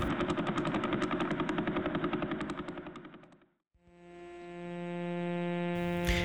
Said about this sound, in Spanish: Este es el sonido de vela pulsar. Es como que si fueran... Eh, tambores o instrumentos de percusión.